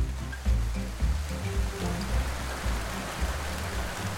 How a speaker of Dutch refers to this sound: U hoort het, het is hard aan het regenen, dus ik blijf nog even in de auto zitten.